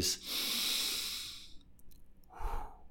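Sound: deliberate deep breath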